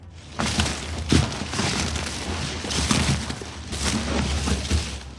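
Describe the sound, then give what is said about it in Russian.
A large, strong body crashes through dense jungle undergrowth about five metres away: a steady, loud rush of snapping and tearing vegetation with scattered heavy thuds, lasting several seconds with no voices. “Заросли джунглей раздирались под напором большого и сильного тела.”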